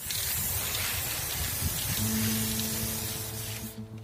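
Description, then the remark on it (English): A continuous hiss of an aerosol spray paint can, used in a side-spray technique to shape cloudy designs on a city utility box, blasts for several seconds, then cuts off abruptly near the end, with a low droning hum underneath. “It's called side spray where Joos shapes out cloudy designs using a special spraying technique.”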